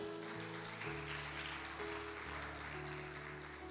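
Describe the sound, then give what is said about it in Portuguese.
A crowd applauds for the Lord steadily throughout, a dense wash of clapping from a sizable audience, with sustained keyboard or organ tones holding underneath. “Agora essa merece até um aplauso ao Senhor. Pode aplaudir ao Senhor aí.”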